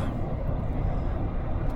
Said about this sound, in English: There's another um, aid car, or ambulance, as the East Coast guys call them